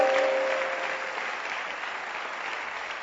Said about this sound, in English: Can you clap your hands for the man who is projecting the scriptures? He doesn't know his work, but still clap for him.